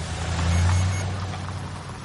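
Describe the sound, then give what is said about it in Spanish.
Cars pull away with a steady low engine rumble and a broad road hiss, peaking briefly and then easing slightly as the vehicles move off. No one speaks. “Los coches se van.”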